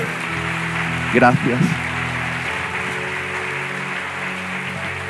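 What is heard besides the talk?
audience applause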